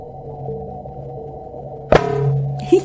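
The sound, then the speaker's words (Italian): A sonification of data from the BepiColombo spacecraft during a planetary flyby: a low, steady electronic drone of layered hums, broken near the end by one sharp ringing burst and then a shorter, fainter crackle. “andiamo allora a vedere, a sentire che cosa ha sentito, tra virgolette, con le orecchie Beppi Colombo e che co- nello stesso momento in cui ha visto il pianeta eh, passare sotto di lui.”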